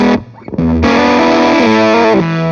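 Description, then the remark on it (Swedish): Electric guitar run through a Fuzz Face pedal into a Hanneby pedal, playing a few loud, thick, saturated chords that sustain and shift, on its own with no voices. “brukar bli ganska kul av att köra in en fast face just i en Hannebi.”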